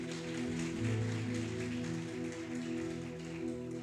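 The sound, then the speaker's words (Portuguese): A church audience applauds to welcome a first-time visitor, a dense, steady wash of clapping that holds for several seconds, with sustained low musical tones humming underneath. “A igreja quer saudar a nossa amada com uma forte salva de palmas, com bastante alegria.”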